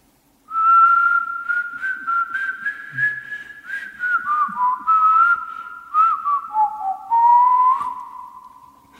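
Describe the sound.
A single person whistles a song melody softly and steadily for several seconds, the pure tone gliding between notes in a flowing tune. A radio host is attempting a listener's challenge to whistle quietly at home so as not to disturb the neighbours.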